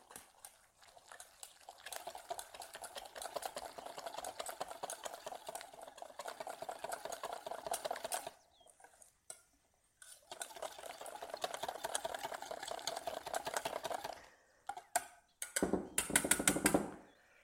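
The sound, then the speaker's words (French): Fast, steady whisking of a breading mixture in a small mixing bowl, for about ten seconds: two long runs of rapid, even metallic ticking separated by a short pause, ending with a few louder knocks and clatter. No one speaks. “Tous les éléments sont mis dans mon petit cul de poule pour préparer l'enrobage de la panure et maintenant je vais fouetter pendant une dizaine de secondes pour bien mélanger le tout.”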